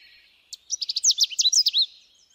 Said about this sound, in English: Take another example the Canada warbler, a little bird with a yellow throat and belly. It weighs about as much as a AAA battery. It can be spotted this time of year from Nova Scotia to northern BC.